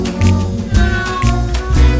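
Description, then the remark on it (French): Several voices mimic a cat's meow in a sing-song way, repeated in quick succession over a steady musical backing, loud. “Allez les filles, tout le monde, tout le monde, tout le monde sait faire miaou.”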